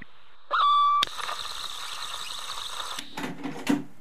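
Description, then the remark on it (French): A cassette player's mechanism clicks on sharply after a brief high squeal, then a steady mechanical whir and tape hiss from an old, slightly crackling cassette run on, with a few softer clunks near the end. “Voilà, ça, c'est le bruit de déclenchement de l'appareil à cassette.”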